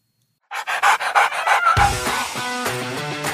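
A dog pants in quick, rhythmic breaths for about a second, then music comes in and continues to the end.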